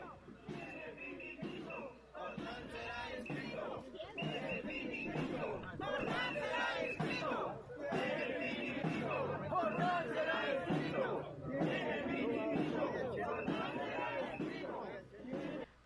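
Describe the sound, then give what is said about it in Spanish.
A large crowd of people at a gathering shouts and chants together, a dense, continuous roar of many voices that swells and dips in waves, sounding loud with no single voice standing out. “Por favor, ponenos el fondo para que también nosotros lo escuchemos.”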